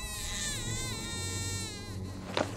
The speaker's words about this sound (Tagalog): Umiiyak ang kapatid ko! Naririnig niyo ba?